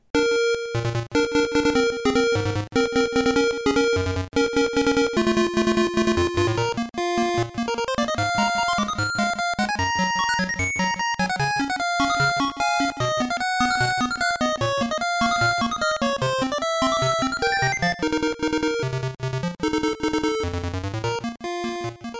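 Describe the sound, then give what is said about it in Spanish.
Bright Game Boy opening theme music plays alone for over twenty seconds, a buzzy square-wave melody moving over a steady beat, loud with no voices. “La verdad es que con solo escuchar los acordes del, inicio ya se me pone la piel de gallina.”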